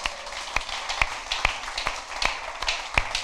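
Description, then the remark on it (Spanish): An audience applauds with a steady wash of clapping, while a few louder, sharp claps stand out about every half second over roughly three seconds. No one speaks. “Des un aplauso porque es honesto, es en la casa de Dios.”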